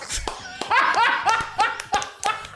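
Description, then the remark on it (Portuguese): Hosts of the Pauta Livre program clap in loose, uneven bursts to congratulate the listener of the month, while voices cheer and laugh excitedly over the applause, the sharp claps and animated voices overlapping throughout. “Levantar e é aplaudir.”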